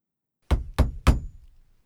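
Three heavy, booming knocks on the front door of a house in quick, even succession, loud, each with a deep thud that rings out briefly before silence.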